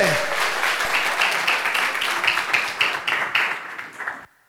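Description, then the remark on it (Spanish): An audience at a church service, told to applaud loudly and stand up, breaks into strong, sustained applause, a dense crackle of many hands clapping at once that holds steady for several seconds before cutting off abruptly. “Dele fuerte ese aplauso y colóquese en pie.”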